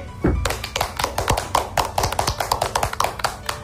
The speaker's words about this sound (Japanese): おめでとうございます拍手